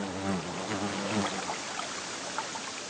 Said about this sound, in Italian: E allora si soffermava ad ascoltare il richiamo breve del pettirosso o il ronzio tremulo dei bombi in cerca di polline.